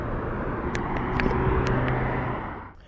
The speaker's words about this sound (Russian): Так, тут опять какой-то автобус приближается, так что я приторможу запись этого продолжительного интро.